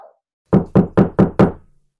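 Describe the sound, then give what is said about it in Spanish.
Five firm knocks on a wooden door past midnight, evenly spaced in a quick steady rhythm, loud, with silence around them. “¿quién estará tocando la puerta a estas horas de la noche?”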